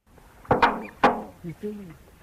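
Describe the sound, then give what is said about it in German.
A musk duck named Ripper imitates a slamming door: a few sharp, loud bang-like thuds close together, followed by two short, low, nasal calls. No one speaks. “Ja, die Moschusente Ripper ist, hat viele Fähigkeiten offensichtlich und hat auch zuknallende Türen imitiert.”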